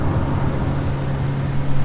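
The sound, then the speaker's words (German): A steady, loud engine drone fills a moving short-distance bus interior as it overtakes a truck and climbs uphill, with a constant low hum and broad road rumble throughout and no voices. “So, hier den Laster überholen. Oh, jetzt es auch noch berghoch.”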